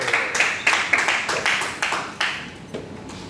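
An audience applauds as a contestant takes the stage to tell a folk tale in a storytelling contest, a dense patter of many hands clapping with several sharper claps standing out, steady and fairly loud before it begins to thin toward the end.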